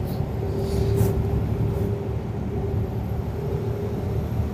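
A Unimog truck engine rumbles steadily while driving out in farm countryside, a dense low-pitched drone with a faint tonal hum running through it and no pauses or talking.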